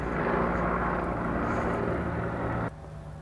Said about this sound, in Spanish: Marico era un helicóptero